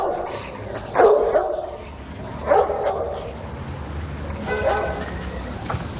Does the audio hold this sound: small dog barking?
yes